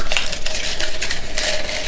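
Continuous crinkling and rustling of paper slips with conversation topics being rummaged and pulled from a handleless cup, a busy scratchy texture lasting about two seconds with no talking.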